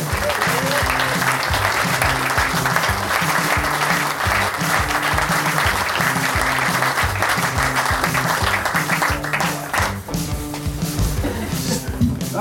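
A live audience applauds steadily and loudly for about twelve seconds as guests are welcomed onto a stage, a dense wash of clapping, while rhythmic music with a pulsing bass line plays underneath before the clapping thins slightly near the end.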